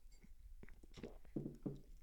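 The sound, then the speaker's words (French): Someone takes quiet sips of coffee: soft lip smacks and faint clicks, then a couple of short gulping swallows, with no talking. “Alors c'est 10 secondes, c'est à vous, une petite gorgée de café.”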